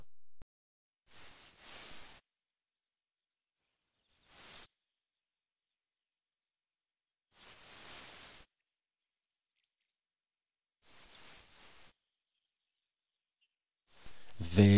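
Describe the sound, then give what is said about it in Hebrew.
A pipit sings a high, buzzy insect-like song that repeats in five separate bursts, each about a second long, with silent gaps between them; the thin, sustained trill sounds much like a cicada. “איך אנחנו מוצאים אותם? בעזרת השירה, כמו ציקדה, ככה זה נשמע.”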